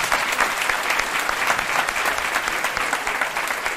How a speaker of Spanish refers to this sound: Se levantan la hermana, perfecto. Dios la bendiga, hermana. Un aplauso para nuestra hermana.